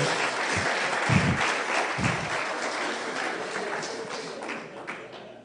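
A crowd applauds the speaker's mother-in-law steadily, a dense wash of many hands clapping at moderate volume, with a few heavier low thumps early on, then slowly tapering.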